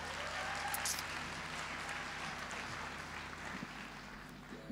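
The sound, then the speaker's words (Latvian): A steady wash of audience applause after a band plays a short piece, dense and sustained clapping filling the whole stretch at a moderate level, with no voices standing out. “Aplausi, aplausi, aplausi.”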